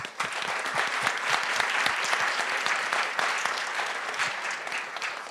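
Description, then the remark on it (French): Sustained audience applause, a dense, steady patter of many hands clapping at an even loudness with no voices standing out, applauding the Lotec Lab team for bringing out a printed special issue. “Et je pense qu'on peut vraiment les, les, les applaudir pour ça encore une fois.”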